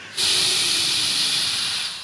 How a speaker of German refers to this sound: Geh zur Dusche und mach auch die Dusche an.